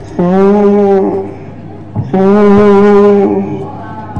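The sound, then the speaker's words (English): A person imitates a calf mooing with two long, drawn-out moos separated by a short pause, the second a bit longer. The voice is loud, with no other sounds. “one of the little calves felt so frightened and alone, missing her mother. She was mooing,”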